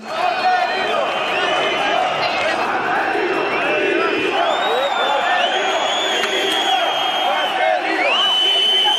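stadium crowd chanting

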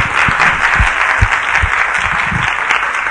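audience applause

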